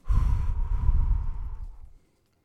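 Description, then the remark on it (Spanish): A long, deep exhale of about two seconds during a breathing exercise, after inhaling deeply through the nose and holding, breathy, with a rough airy rush that fades out, followed by silence. No talking. “Vamos a empezar a inhalar profundo por la nariz lo mantengo un poco y dejo salir el aire.”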